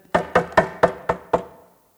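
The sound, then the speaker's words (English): Six sharp knocks on a dumpster door in a quick, fairly even rhythm, loud, each with a short resonant ring, then silence. “and this time I kind of jumped because it's a knock at my dumpster door.”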